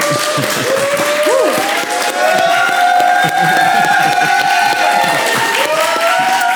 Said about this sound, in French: Ils sont très bons pour applaudir.